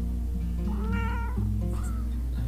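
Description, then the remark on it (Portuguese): A cat named Nino, having come into the bedroom, meows into the microphone, a drawn-out, wavering cry followed by a shorter second meow, with steady low background hum and no talking. “em que o, o meu gato entrou no quarto e eu falei, Nino, dá oi pras pessoas, e ele fez miau no microfone.”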